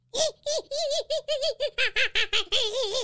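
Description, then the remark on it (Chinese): A voice imitates monkeys calling from far away in a misty mountain: a quick run of about a dozen high-pitched, wavering hoots and squeals, loud and bouncy, ending in one longer warbling call. “哎，陈六仔细一听啊，远远的地方传来猴子的叫声。”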